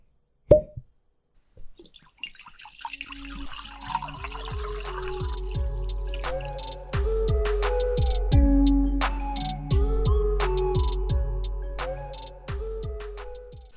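A sharp cork pop, then Prosecco is poured into a glass, gurgling and fizzing as the pitch rises while the glass fills, with no one speaking.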